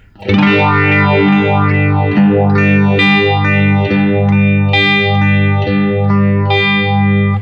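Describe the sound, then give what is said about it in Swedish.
A sustained electric guitar chord swirls through a sweeping phaser-style modulation pedal with its speed set to 11 o'clock, the whooshing sweeps rising and falling steadily, with a shift in the sweep's character partway through as the pedal is switched between normal and script mode; no voices. “Ställ ner den till klockan 11 igen på speed och sen testar vi då att gå mellan det vanliga och eh, skriptläget.”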